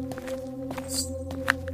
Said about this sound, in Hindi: वो चलते रहे चलते रहे और अब अचानक से उनके कदमों की आहट के साथ किसी और के चलने की आवाज आ रही है